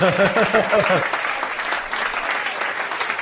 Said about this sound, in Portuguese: Não, sensacional, sensacional. Essa, essa merece aplauso, essa merece aplauso.